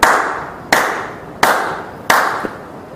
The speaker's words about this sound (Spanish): Bueno, ahora, fíjense bien, si yo hago esto y les digo, esténse conscientes o dense cuenta del aplauso que voy a hacer, mira, a ver.